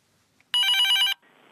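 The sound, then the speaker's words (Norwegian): A single loud burst of a telephone ringing, a bright electronic trill lasting about half a second, followed by a fainter tone as the line connects. No one speaks. It is a call to the SUS telephone, a Norwegian helpline for young people's questions about health and sex. “Det er hit en kan ringe med spørsmål som kan få en til å rødne langt opp i hårrota.”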